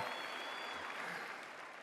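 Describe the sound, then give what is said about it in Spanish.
A steady wash of audience applause, many hands clapping at once in a dense, continuous patter that holds at an even level before easing slightly at the end. “Mira cómo aplauden este.”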